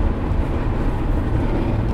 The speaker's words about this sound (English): Um, yeah, we're actually in the car right now. I think we're near Effingham, Illinois.